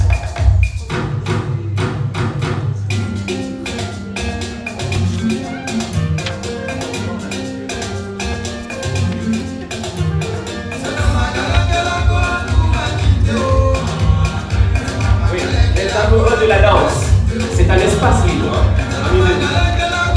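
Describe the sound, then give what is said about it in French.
A sung song plays loudly and steadily, a vocal over a dense band with a pounding, regular bass beat that grows more insistent halfway through. “Alors, écoutez cette chanson. Dites-moi en quelle langue elle est écrite.”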